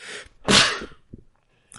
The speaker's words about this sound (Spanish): Estaba estornudando.